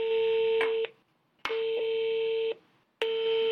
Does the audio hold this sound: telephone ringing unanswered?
yes